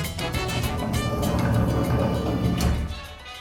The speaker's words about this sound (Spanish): El estudio está escasamente iluminado mientras abro la enorme puerta de metal.